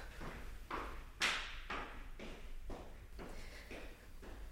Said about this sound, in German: Im Flur des Amts. Hallo? Schritte.